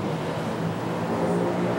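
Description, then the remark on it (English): A group of motorcycles roars together in a dense, steady engine rumble, loud, holding a constant level throughout with no voices. “dude, a recording device, a bunch of motorcycles is what it sounds like.”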